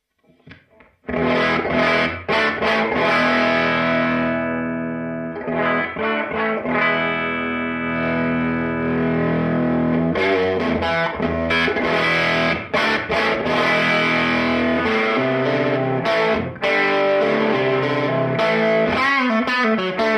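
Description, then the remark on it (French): Crunchy, tweed-style overdriven electric guitar on a humbucker pickup, playing loud chords and riffs that ring and sustain, with a few brief pauses. No voices. “que dès qu'on monte euh, le réglage, ça commence à tordre un peu très très tweed avec cette euh, euh, saturation un petit peu croustillante, pas forcément très très flatteuse, mais ô combien typique.”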